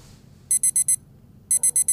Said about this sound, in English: Turn off the alarm.